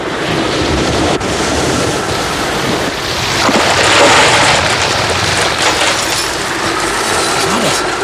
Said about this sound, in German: Können wir das Sturmgebiet nicht umfahren oder, oder warten, bis es sich verzieht? Ach, zu spät. Ein Orkan nähert sich.